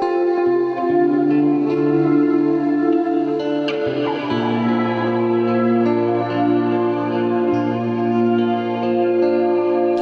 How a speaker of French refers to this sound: Ouais, j'y connais pas grand chose, mais j'ai l'impression qu'il n'y a que sa guitare, avec beaucoup de réverb dans cette prise. Un bien joli travail d'artisan.